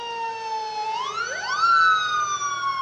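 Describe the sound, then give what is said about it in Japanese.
A fire department emergency motorcycle's siren wails steadily along National Route 20 by Keiō Line Takaosanguchi Station in Hachiōji, Japan, on 1 January 2013, its tone sweeping upward midway and holding, moderately loud and approaching, with no voices over it. “なんか国道20号沿いに今緊急車両が来ようとしております 緊急バイクですか緊急バイクですね”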